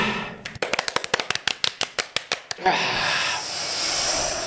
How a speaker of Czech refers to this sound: Dát si tahle ruce před sebe ano. a začít tleskat od pomalu až po rychle. A Ještě jednou.